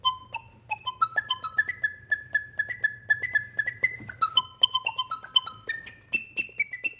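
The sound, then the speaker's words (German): A homemade vacuum-cleaner flute plays a quick, breathy melody of short tongued notes that climb, hold and step back down, over a steady low droning motor hum. The vacuum cleaner's motor is reversed to blow instead of suck, and its metal tube is made into a flute that looks like an organ pipe. “hat den Motor im Staubsauger einfach umgedreht, sodass der nicht mehr saugt, sondern pustet. Und die metallene Röhre hat er zu einer Flöte umfunktioniert.”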